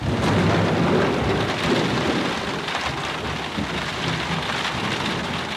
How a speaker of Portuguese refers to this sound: Às vezes está carregado e é chuva, vento e trovão.